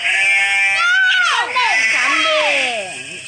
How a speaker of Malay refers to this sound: sheep, sheep.